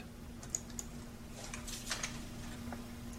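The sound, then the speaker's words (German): Someone types on a computer keyboard in short, irregular bursts of soft clicks over a low steady electrical hum, with no one speaking. “Indem ich daher tipp, therapiere ich meine Ich-Kunde.”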